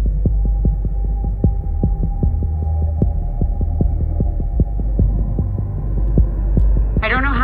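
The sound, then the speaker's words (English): A rapid, steady heartbeat thumps about three times a second over a constant low hum, ending with a brief rising electronic tone; pulse and breathing rates are increasing as hypoxia sets in. “Pulse and breathing rates are starting to increase.”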